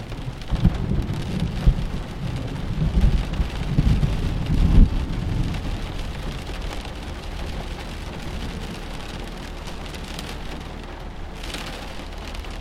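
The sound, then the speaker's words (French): Steady heavy rain of a thunderstorm pours down, heard while sheltering inside a house, with deep rumbles of thunder rolling through the first five seconds before easing into a continuous wash of rainfall. No voices. “A l'abri d'un orage”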